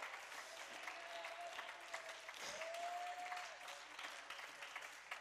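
A church audience claps hands to the Lord in a steady, dense burst of applause that carries through the whole stretch, with a sustained organ-like tone sounding underneath.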